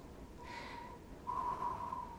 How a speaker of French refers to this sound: Pourquoi les chiens hurlent comme ça? Je sais pas. Depuis l'arrivée des motoneiges ici, les chiens servent juste de système d'alarme. Ils sont pas habitués à rester là à attendre.